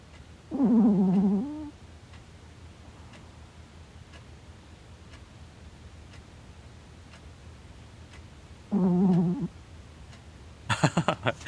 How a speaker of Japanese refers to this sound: これはなんだ我が家の愛と平和の存在を表す音です 何これ、えー、2023ありがとう愛犬の声じゃないかというなるほど、ね、寝てんのかないびきかな